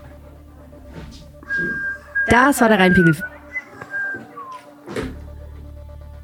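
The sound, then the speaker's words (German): A person whistles a short, wavering melody of a few clear tones without moving their lips, fairly loud, with brief speech before and after. “Hast du gepfiffen? Mhm. Ohne Lippen zu bewegen?”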